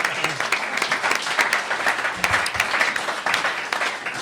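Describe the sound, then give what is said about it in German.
An audience applauds steadily, a dense wash of many hands clapping at a fairly loud, even level for several seconds, with scattered sharper claps standing out. “Also da mal einen Applaus, der ist ganz toll.”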